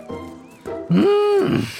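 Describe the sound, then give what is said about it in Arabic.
A donkey named Shalhoub brays once, loud, in a single drawn-out harsh call that swells and holds before breaking off, preceded by softer, murmuring sounds. “هذا الحمار له اسم واسمه شلهوب”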